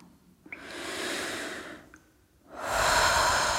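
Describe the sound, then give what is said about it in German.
Two long, deep breaths, a slow breath in followed by a louder, fuller breath out, airy with a short pause between them and no talking. “Ein und aus, tief ein und aus.”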